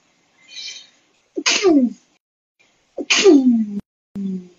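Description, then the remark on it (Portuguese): Two loud sneezes from an allergic woman a second and a half apart, each with a sharp burst and a falling vocal trail, preceded by a breathy intake and followed by a short exhale. “Tudo eu espirro.”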